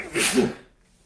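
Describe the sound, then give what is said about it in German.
A single sharp sneeze bursts out, a quick explosive blast of breathy noise that fades within half a second into near silence. “So, Gesundheit.”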